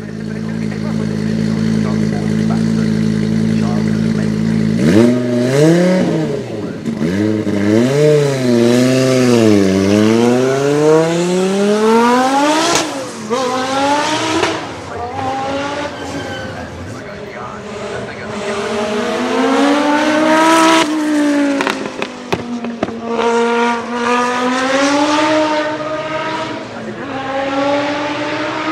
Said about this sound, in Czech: Na závěr tohoto dílu mám pro vás připravený ještě zvuk plno vytočeného motoru zmíněného prototypu pro skupinu S. Zvukový záznam pochází z festivalu rychlosti v Goodwoodu z roku 2017, který můžete najít na YouTube.